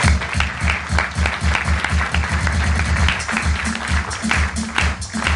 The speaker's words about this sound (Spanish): Tenemos los capacitadores que hemos tenido aquí. Yo les pido por favor un fuerte aplauso para todas las personas.